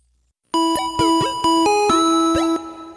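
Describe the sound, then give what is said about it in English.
A doorbell at a home in Japan, rung by a neighbor, rings loudly: an electronic chime playing a sustained melodic tone for about two seconds, punctuated by several sharp clicks, with no one speaking. “His neighbor rang the doorbell just to say hey and check in on him, which was really nice.”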